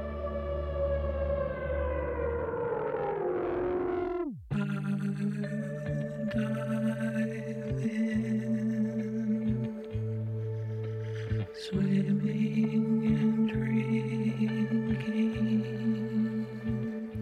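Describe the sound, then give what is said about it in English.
An indie rock song opens with a long downward pitch sweep, then drops into a steady, loud groove of repeating bass notes and bright layered tones, with a sweet melodic vocal line on top. “kind of fast forward into the meat potatoes of it so you can kind of hear it. The vocals are sweet.”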